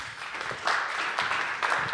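A room full of people claps steadily, a dense, sustained wash of applause that swells slightly partway through and carries on without any voices.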